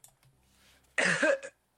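A single loud, harsh cough, a raspy half-second burst with a short tail, following a brief stretch of faint, low background murmur.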